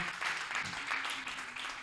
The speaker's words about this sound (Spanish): Dele otro aplauso al Señor.